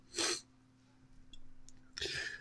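Two loud sneezes: a sharp burst at the start, then a quiet pause with faint breathing, and a second forceful sneeze near the end. No one speaks.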